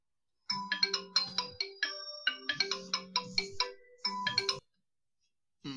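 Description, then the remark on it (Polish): A melodic phone ringtone plays clear, a quick run of bright tonal notes repeating for about four seconds, then stopping, with a brief restart at the very end, for a call from a driving instructor. No one speaks. “Dzwonił mój instruktor jazdy, że mam e, egzamin teoretyczny w piątek.”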